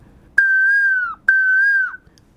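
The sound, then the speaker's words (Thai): Two long whistled notes imitate a koel's call for a class of children, each held at a steady mid-high pitch and dipping at the end, separated by a short pause. No one speaks. “ผมก็เล่าให้เด็กฟังว่า นกกาหว่าวมันร้องว่า”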